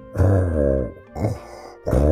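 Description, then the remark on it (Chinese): A voice imitates human snoring: three low, rough, throaty snores, a long drawn-out one followed by two shorter ones, fairly loud with brief pauses between. “哎，怎么感觉是人的呼噜的鼾声呢？”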